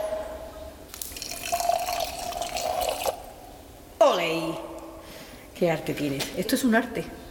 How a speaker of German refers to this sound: Er nimmt eine Probe mit der Venencia, einem kleinen Metallzylinder mit einem 60, 70 Zentimeter langen Griff. Dann schenkt er die Probe in hohem Bogen durch die Luft ins Glas.